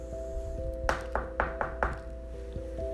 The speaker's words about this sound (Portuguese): Chegando lá, a porta estava fechada. Então o lobo pensou num plano, em como enganar o porquinho para o porquinho abrir a porta. E ele foi e bateu a porta.